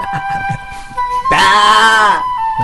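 A goat lets out one loud, wavering bleat lasting about a second, rising sharply and then trailing off, with a steady electronic tone and faint background sounds around it.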